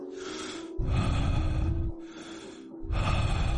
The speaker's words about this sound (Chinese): 就在这时，一阵微弱的喘息声在我耳边响起。